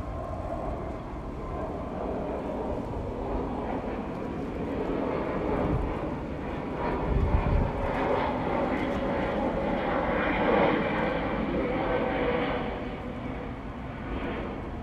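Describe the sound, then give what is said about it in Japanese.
A low, steady airplane roar near an airport fills the whole recording, swelling slightly louder midway as the aircraft passes overhead, then holding as a broad, rumbling drone with no voices. “すいませんちょっと空港が近いので飛行機の音がするのでちょっと一回止めますね”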